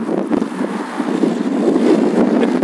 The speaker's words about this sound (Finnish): ollaan tässä pahassa tuulitunnelissa.